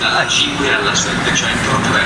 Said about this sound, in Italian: Esatto. Treno vuoto.